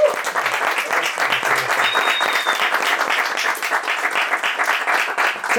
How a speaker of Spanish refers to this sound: Gracias a ustedes y un aplauso para las chicas que...